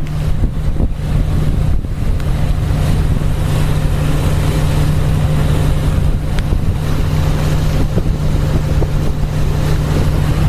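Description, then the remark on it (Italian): A fishing boat runs through wind and sea at night under moonlight. Its low engine drone is constant beneath gusting wind buffeting the microphone and the wash of the sea. Loud throughout, with no voices. “Continuiamo a farvi ascoltare il respiro del Savonarola nella sua corsa nel vento e sull'acqua.”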